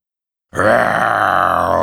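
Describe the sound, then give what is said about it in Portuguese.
A voice imitates the big bad wolf's most terrible roar: after a moment of silence, one loud, sustained, rough growling bellow starts abruptly and holds steady to the end. “Ele resolveu meter o terror, mandou o seu urro mais terrível de lobo mau.”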